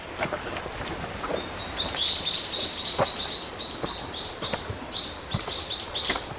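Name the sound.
birds singing in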